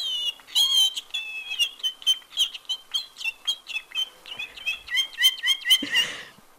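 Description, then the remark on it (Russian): A talking canary sings clearly, a rapid run of bright chirps and warbling trills repeated in quick pulses for several seconds, with no voices. “можем под пение канарейки, наверное, эту тему в том числе и обсудить.”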